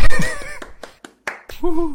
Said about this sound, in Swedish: Jag tycker att det förtjänar en applåd.